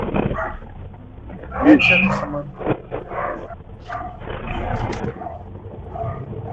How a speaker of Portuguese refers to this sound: Ai, ah, meu Deus. É que tá, os cachorros estão latindo aqui, então é complicado.